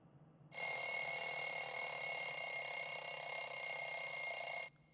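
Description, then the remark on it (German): An alarm clock rings loudly, a continuous metallic bell clatter lasting about four seconds before cutting off abruptly, with no one speaking. “Es war mein Wecker.”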